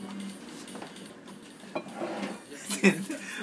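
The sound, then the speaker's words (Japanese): A few light clinks and clatters of utensils against a dish of curry heated in a microwave, irregular, with one sharper knock near the end over a low steady background hum. “今ちょっとあの電子レンジにあったカレーがすごい熱かった”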